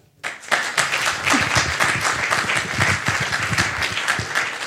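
Audience applause breaks out after a brief quiet start and holds steady, a dense, even wash of many hands clapping at a fairly loud level for several seconds.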